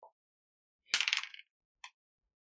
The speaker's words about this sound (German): Ja gut, das muss ich aber halt wieder gut würfeln. Gib alles.